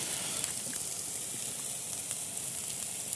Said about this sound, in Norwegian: Da begynner vi her med å surre sjalottløk og hvitløk. Det gjør vi. Det lukter liflig som alltid.